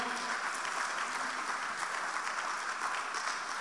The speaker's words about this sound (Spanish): Déselo al Señor ese aplauso, por favor.